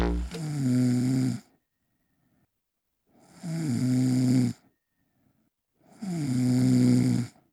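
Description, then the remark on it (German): Three loud, drawn-out snores at a steady pace, each a rough, buzzing rattle lasting over a second, separated by quiet pauses for breath. “Was ich Sie auch noch fragen wollte zum Thema Durchschlafen und Schnarchen.”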